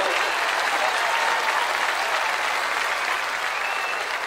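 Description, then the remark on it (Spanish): A concert audience applauds steadily, a dense, even wash of many hands clapping at a constant loud level for several seconds with no pauses or voices standing out. “Para quien pide un fuerte aplauso.”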